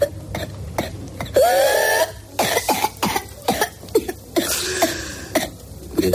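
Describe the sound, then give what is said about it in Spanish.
A child with whooping cough coughs in rapid, repeated bursts, then draws in a long, high-pitched whooping breath, and the cough fits resume; loud with no talking. “Pues sí, es el principal síntoma, esa tos constante, con una característica principal, que es que se produce un gallo al respirar.”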